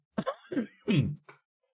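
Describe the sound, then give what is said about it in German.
A short fit of coughing from a lingering cough during a recording: three or four rough, throaty bursts in quick succession, the middle one longest, then silence. “Entschuldigung, mein Husten ist manchmal noch ein bisschen da.”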